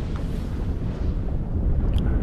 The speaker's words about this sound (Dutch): Maar dan opeens... boert de aarde. Een vulkaan-explosie. Het gebeurt. Ook vandaag nog.